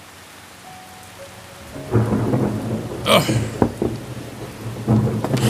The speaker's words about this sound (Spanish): La tormenta no se detiene. Y parece que ahora es más fuerte. ¡Qué desastre! Todo mojado.